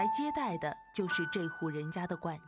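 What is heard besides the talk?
doorbell ringing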